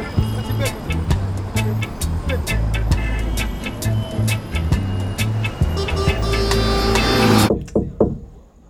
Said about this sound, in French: Je prends les sons de voitures pour pour faire un documentaire.